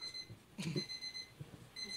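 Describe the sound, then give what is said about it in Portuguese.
An alarm clock rings with a steady, high-pitched electronic tone that cuts out briefly and then starts again, with some soft rustling and handling noise in between as someone searches for it to switch it off. “Antes de dizer o nome dela, desliga o alarme.”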